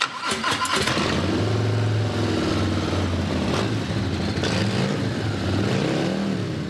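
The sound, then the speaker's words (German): A Harley-Davidson Fat Bob motorcycle engine rumbles and revs, its deep, steady idle swelling into a few throttle blips. The engine sound is loud and continuous, with no talking. “Ihr ganzer Stolz ist eine Harley Davidson Fat Bob.”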